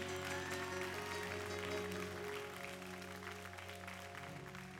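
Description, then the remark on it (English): An audience at a church service breaks into sustained hand clapping of praise, a dense, steady wash of claps over a low sustained musical drone, holding strong before easing slightly toward the end. “Come on, if you love Jesus, give him a hand clap of praise.”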